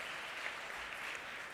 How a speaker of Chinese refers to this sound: 好吧，让我们再一次拍手